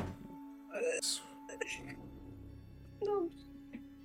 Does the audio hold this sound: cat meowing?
yes